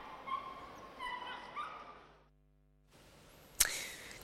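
A dog whimpers in a series of high, thin whines, falls quiet for a moment, then lets out a single sharp bark.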